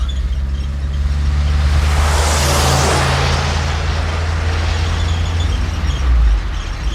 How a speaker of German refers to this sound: Ein Auto kommt uns entgegen. Seltsam in dieser einsamen Gegend.